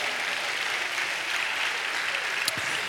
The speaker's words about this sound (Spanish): Dale un buen aplauso al Señor, amado hermano.